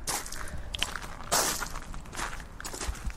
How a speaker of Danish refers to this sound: Lige her under mig, der er en af de lyde, som øh, vi ofte gør grin med. Det er øh, perlegrus. Øh, øh, en en podcast i grus er nærmest blevet et begreb, der er, når øh, jeg-fortælleren går hen ad en øh, grusbelagt vej